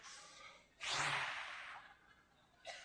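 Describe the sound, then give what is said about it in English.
A voice imitates an exhausted eagle perched on top of a fence, panting: a few heavy, breathy huffs, the middle one long and loud, followed by a shorter gasp, with no words spoken. “You ever seen an eagle perched on top of a, of a fence going,”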